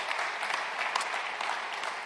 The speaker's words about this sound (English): I just want to give you guys a round of applause as well as to the Ministry of Refugee Bridge.